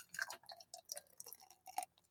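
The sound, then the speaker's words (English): Coconut Blackout beer from Second Wind glugs out of a can into a glass in uneven, splashy bursts, fairly quiet, with no one talking. “We're going to pour this puppy.”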